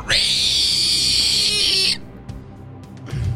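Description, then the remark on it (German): A single harsh, piercing screech from a creature thrusting its chest forward, lasting about two seconds, shrill and raspy with a strained, noisy texture, loud and alone before cutting off into quiet with faint rustling. “Die Kreatur äh, taumelt in der Luft umher, fängt sich wieder, streckt seine Brust nach vorne aus und stößt ein widerwärtiges Kreischen aus.”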